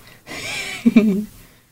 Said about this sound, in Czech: Je, to tak kape krásně. Počkej, podržím, ať ti to může kapat ještě.